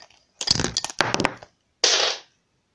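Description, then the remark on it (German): A recording device falls with a loud burst of clattering thumps and rattles, followed after a brief pause by a short scraping rustle as it is handled. “Also, ähm, ihr seid gerade übrigens auch runtergefallen, sozusagen.”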